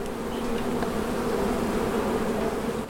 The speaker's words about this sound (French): C'est une abeille qui est pleine de pollen, en fait voyez le pollen